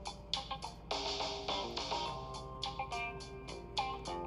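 A rapid string of bright electronic chimes from a phone as notifications are cleared, alert tones overlapping one after another for a few seconds, fairly clear with no one speaking.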